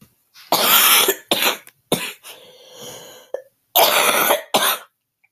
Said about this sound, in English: Sorry, guys, I'm sick. And I have a lingering cough. I hate it.